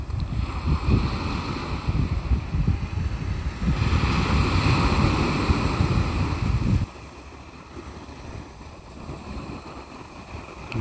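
Ocean waves wash onto a beach in a steady, broad roar with gusty wind noise, swelling for several seconds before easing into a softer, quieter hiss of surf.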